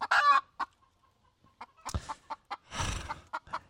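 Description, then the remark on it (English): Chickens cluck in a scattered series of short, sharp calls, opening with a loud squawk and later a noisy flurry, with no one talking. “What the cluck are you talking about?”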